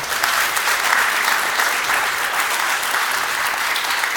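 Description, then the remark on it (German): An audience claps steadily throughout, a dense, even wash of many hands at a fairly loud level with no voices standing out. “keinen Applaus, sonst macht er weiter.”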